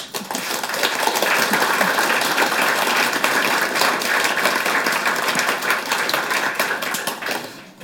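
A crowd applauds steadily for several seconds, dense overlapping claps at a consistent loud level that hold throughout before tapering off near the end.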